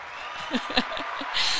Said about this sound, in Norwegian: ja, nå skulle vi til å... Trykk på applaus.